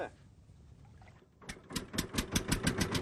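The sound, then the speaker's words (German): The outboard motor of a small boat on the Mediterranean sputters to life after a quiet, watery lull, started by young men for a test run, then settles into a loud, rapid chugging rhythm of repeated bursts. “dann starten sie den Motor für eine Probefahrt.”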